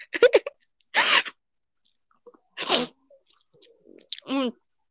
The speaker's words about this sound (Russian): Я сейчас это рыгнул, э, и меня стошнило помидоркой В себе в рот. Я э. сейчас проглотила обратно.